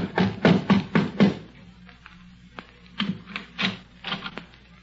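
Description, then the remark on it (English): Five firm, evenly spaced knocks by a doctor on the wooden front door of the Underwood home, in quick succession, followed by a pause and a few softer, irregular thuds and shuffling sounds. “The doctor knocked at the front door.”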